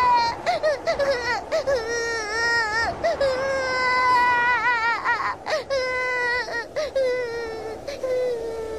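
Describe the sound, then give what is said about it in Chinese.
A girl cries in fright while sitting on the floor of a small wooden house carried away by a tornado, holding her little dog: sustained high-pitched wailing sobs broken by short catches of breath, loud and continuous throughout with no talking. “多罗西被吓哭了，他坐在地板上不敢动弹。”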